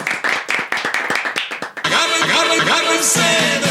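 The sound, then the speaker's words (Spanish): A small group applauds a guest during a nighttime recording, clapping in quick, irregular bursts for about two seconds, then loud overlapping voices cheer and shout over the fading applause. “Gracias, un aplauso”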